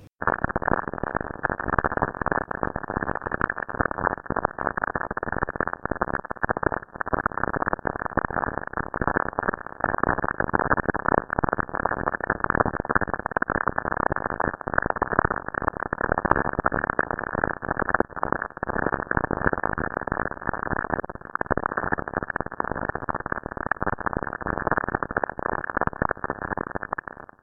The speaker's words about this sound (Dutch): 28 seconden blikseminslagen op Saturnus. Het zijn echt heel erg veel.